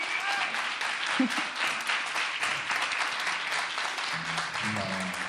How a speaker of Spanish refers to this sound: ¡Uh! Se escuchan las voces y el aplauso del público que nos acompaña.